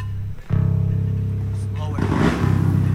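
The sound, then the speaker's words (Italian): A motorcycle engine kicks in after a brief pause, idling with a steady low throbbing drone taken as an E note for a band to tune to, then revving up louder toward the end. It sounds fairly loud. “Adesso prendi il mi dalla, dalla moto.”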